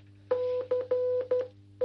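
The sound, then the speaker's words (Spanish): Morse code beeps sent by radios left around a perimeter: a steady, fairly loud tone keyed on and off in a mix of long dashes and shorter dots, above a constant low hum. “Dejamos alrededor del perímetro radios que envían frecuencias en clave Morse, claves que solamente Rodo y tú van a poder entender.”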